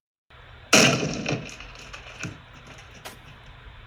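A loud, sudden crash of a door being smashed open, with wood splintering and cracking as it gives way, followed by a few smaller cracks and thuds as debris settles.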